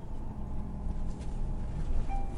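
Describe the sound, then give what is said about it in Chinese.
A route 188 city bus, coming back from the countryside, drives along with a steady, low engine drone and continuous rumble, plus a faint higher whine rising briefly near the end; no one speaks. “今天，你去农村看望了一个朋友，回来时上了一百八十八路公交车。”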